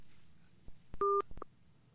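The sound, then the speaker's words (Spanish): A telephone keypad tone sounds once, a short steady dual-pitched beep, surrounded by a few sharp clicks and taps over a faint background hum, as a call is being placed again after a dropped call. Nobody speaks. “Estamos tratando de realizar una llamada con él.”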